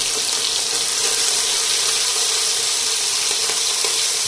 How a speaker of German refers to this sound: brät schön. So, ein bisschen locker machen und dann braten lassen.